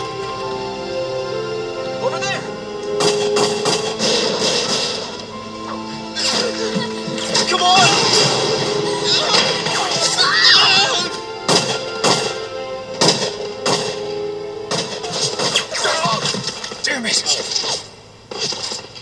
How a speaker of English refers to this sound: Gunfire! Everyone keep your heads down!